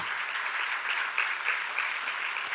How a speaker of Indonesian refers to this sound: Berikan tepuk tangan dulu bagi Tuhan kita Yesus.